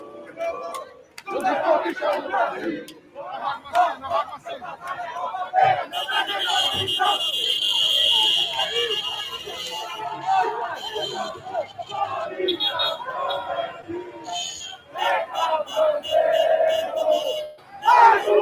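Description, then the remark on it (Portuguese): A large crowd of Corinthians football fans in Juazeiro do Norte, Pernambuco, cheers and chants loudly and continuously as the team arrives by plane and leaves the airport by bus, with a dense roar of shouting voices and a sustained high, shrill tone rising above the noise midway through. “fica essa imagem que eu também acho muito bonita pela paixão desse povo todo ali de Pernambuco, de Juazeiro do Norte, quando o Corinthians chega do avião e sai do aeroporto com ônibus.”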